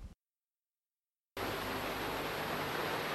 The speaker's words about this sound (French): Et nous voici au bord de la célèbre cascade derrière la maison des Wright